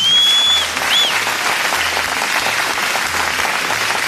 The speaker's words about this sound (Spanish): se merecen uno, un fuerte aplauso. Ahí está.